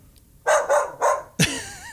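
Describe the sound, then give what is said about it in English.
A wolf gives three quick, loud barks in a row, then breaks into a sharp yelp that trails off into a wavering, whining howl, with no one talking. “Uh, since this is a radio show, I didn't bring the video recorder, but I went out and found this wolf and I, I recorded audio.”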